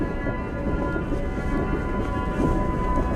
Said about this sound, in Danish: Knud Rasmussen kælver. Et isbjerg på størrelse med et parcelhus brækker af den isblå gletsjer opkaldt efter den store polarforsker og nationalhelt. Isbjerget fra Rasmussen-gletsjeren rammer vandet og sender en stum bølge hen mod vores glasfiberjolle.